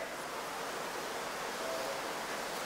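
Steady rain falling outside, a dense, even hiss of countless drops with no breaks or distinct splashes, holding at a constant moderate level throughout. Nobody speaks.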